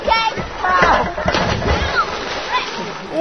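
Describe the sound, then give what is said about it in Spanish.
Water splashing and sloshing as children play with their friends in a river, steady, with children's voices chattering and calling over the splashes. “estaban jugando en el río con sus amigos.”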